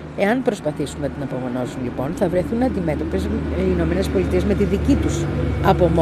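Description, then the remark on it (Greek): A man talks continuously, recording a show at a café beside a highway, over a steady, low rumble of cars passing on the highway; the traffic drone stays constant and subdued beneath the voice throughout. “Αυτά που ακούς είναι αυτοκίνητα γιατί γράφω εκπομπή δίπλα στον αυτοκινητόδρομο, αλλά σε ένα ωραίο καφέ θα σου βάλω και φωτογραφία να το δεις.”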